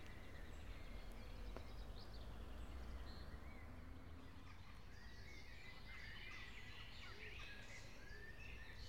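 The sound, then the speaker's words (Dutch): Several birds sing and chirp in an English landscape garden among large trees, with an overlapping, continuous chorus of quick twitters and short calls, set against a soft, steady outdoor ambience. No one speaks. “En dat is wel zo leuk, je kan beter de vogeltjes op de achtergrond horen dan het gedrup van de regen op het autodak.”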